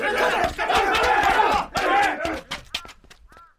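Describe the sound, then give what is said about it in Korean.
A crowd of district villagers shouting together in an angry uproar as they rise up to reclaim their land, loud, voices overlapping for a few seconds before thinning out into scattered cries. “고을 백성들이 크게 노하여 제가끔 땅을 찾겠다고 나서자”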